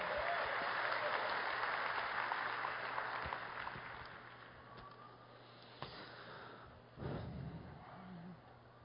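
A church audience applauds the Lord together after a prayer, a dense wash of clapping that starts full and gradually thins and fades over several seconds, with a few scattered claps and a brief murmur toward the end.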